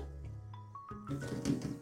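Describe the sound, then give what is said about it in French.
Crisp rustling and crackling as lettuce leaves are pulled apart to prepare a green salad, a short burst of handling noise following a moment of low background hum, with no talking. “Je défais bien les feuilles.”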